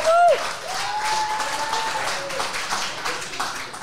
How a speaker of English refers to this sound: Come up here. There we go. Give her round of applause, everybody.